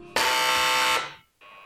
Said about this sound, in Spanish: Ese timbre entra, ¿no? Visitas a esta hora.